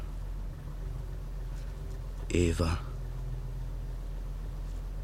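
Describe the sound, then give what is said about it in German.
A steady, low engine rumble drones throughout, heard from inside a moving car at 3:40, with a single short word spoken quietly about halfway through. “was würdest du sagen, wenn du jetzt neben mir im Auto säßest?”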